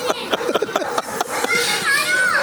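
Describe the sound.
Several children's voices chatter and call out outdoors in Dudullu, lively and overlapping, with some high-pitched squeals rising toward the end, like kids playing.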